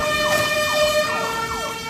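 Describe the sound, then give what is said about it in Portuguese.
A fire engine siren wails loudly, its pitch sweeping up and down in quick repeated cycles over a faint vehicle rumble, with no one speaking. “Então, chama o bombeiro!”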